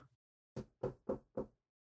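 knocking on wood

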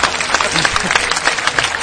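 applause

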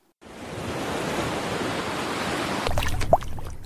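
sea waves and surf

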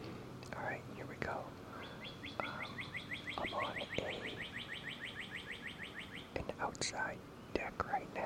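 bird chirping outdoors

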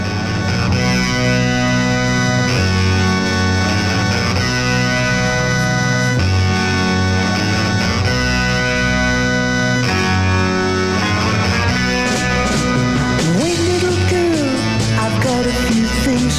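music playing

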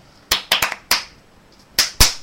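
hand clapping

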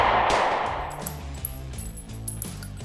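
gunfire

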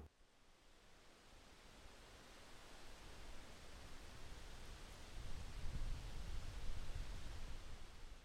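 white noise

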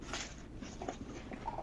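dog chewing on something

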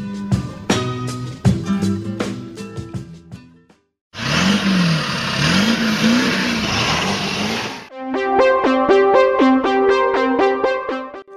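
diesel car engine revving

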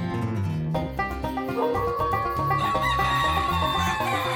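chickens squawking

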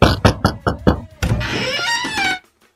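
knocking on a door

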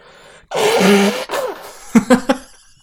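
blowing nose

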